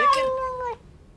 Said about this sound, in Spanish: ¿Ella desde cuándo tiene un pinche gato? pinche animal.